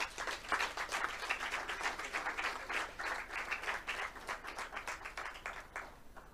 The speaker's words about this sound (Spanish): Un, un aplauso y empezamos con ellas.